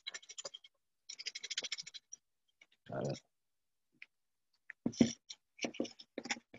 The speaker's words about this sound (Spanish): Tengo acá con con mi super herramienta de última tecnología para, para batir las, las bolillas, los papeles.